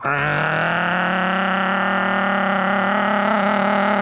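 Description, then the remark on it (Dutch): A voice imitates a boat engine starting up, holding a steady, buzzing droning tone for about four seconds, loud with a slight rising pitch, like a motor starting and running. “en ehm, op een gegeven moment die boot begint eh, te starten en die begint en ik hoor zo”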